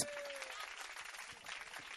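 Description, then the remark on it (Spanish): Steady crowd applause as an audience at an evening talk gives itself a round of applause, a dense wash of many hands clapping at once at an even, moderate volume, with a faint tonal note early on and no one speaking over it. “Que bueno, desen un aplauso a todos ustedes.”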